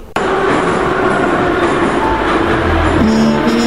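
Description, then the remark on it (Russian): A subway train rumbles loudly and steadily, its electric motors whining, with the pitch of the whine shifting near the end as the train slows arriving at the terminal station. No one speaks. “Станция конечная. Поезд дальше не идет. Просьба освободить вагоны.”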